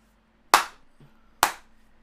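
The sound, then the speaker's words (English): Two loud, sharp wrestling chops from Randy Orton smack against Keith Lee's bare chest roughly a second apart, each a crisp slap with a brief fading tail, and no voices between them. “Randy Orton's chopping this man.”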